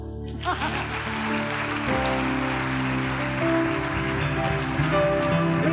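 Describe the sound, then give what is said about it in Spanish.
A crowd bursts into dense, continuous applause that starts abruptly and holds steady and loud for several seconds, with low sustained musical tones underneath. “Otro aplauso.”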